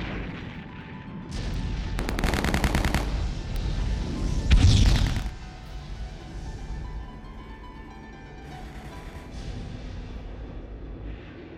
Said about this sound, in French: Mais déjà, plusieurs nouvelles explosions retentirent sur sa droite.